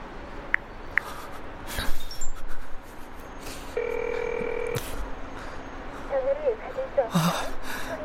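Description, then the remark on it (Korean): A phone is dialed, with a few short tones followed by a single sustained ringback tone lasting about a second. Faint breathing and brief vocal sounds come before and after it. “사실이 제발 좀 받아라. 전화 좀 받으라고.”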